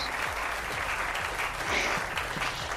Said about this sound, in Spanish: Aplausos, Miss Mogul.